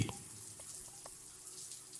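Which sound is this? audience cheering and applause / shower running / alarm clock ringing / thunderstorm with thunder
shower running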